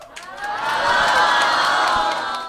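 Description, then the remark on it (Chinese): A live audience of about a hundred-plus people at a live recording in a comedy club venue in north Shanghai shouts "Hello" together on a count of one-two-three, one loud sustained burst of many voices that swells for about two seconds, with scattered whoops, and then fades slightly. “以及我们这一期节目也是在北上海的这个线下的一个现场的录制，然后现场有我们大约一百多位 Steve 说和超智游戏的听众朋友们，大家给观众朋友们、给听众朋友们打个招呼好不好？来，一二三，Hello。”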